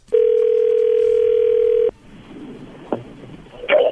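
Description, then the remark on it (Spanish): A telephone tone of an outgoing call being placed holds steady and loud at a single pitch for nearly two seconds, then cuts off abruptly, followed by faint line noise, a brief click and a short burst of sound. “Ustedes se callan, yo le voy a llamar.”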